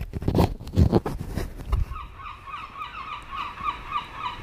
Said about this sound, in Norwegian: Hører du måkene?